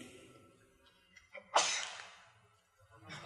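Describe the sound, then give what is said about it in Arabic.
A single sharp sneeze bursts out, preceded by a quick inhale and trailing off into quiet, with a faint rustle near the end. “يرحمك الله”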